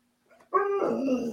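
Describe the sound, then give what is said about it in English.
A dog gives a single drawn-out, whiny bark-like vocalization, rising sharply after a faint lead-in and holding steady for about a second, fairly loud with no talking. “I take it your dog wants something.”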